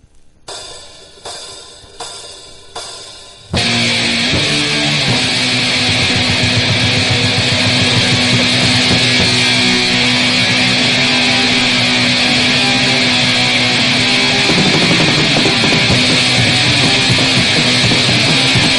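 A harsh experimental music track: four throbbing bursts give way to a loud, dense wall of distorted noise over a steady low drone that holds without letup. No voices are heard.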